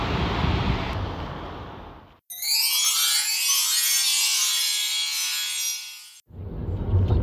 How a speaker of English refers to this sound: It's raining.